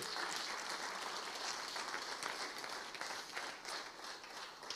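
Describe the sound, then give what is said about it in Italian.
Sustained applause for Jesus from a crowd, a dense steady patter of many hands clapping at once, holding at an even level throughout with no voices rising above it. “Alleluia, fai questo applauso a Gesù.”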